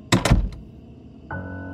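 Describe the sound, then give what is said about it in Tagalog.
A bathroom door is shut quickly with two heavy thuds, followed by a short rattle, then a low steady hum rises and continues. “Binuksan ko ulit ang mga ilaw at pumunta ako sa banyo na nasa kanan at sinara ko kaagad ang pinto.”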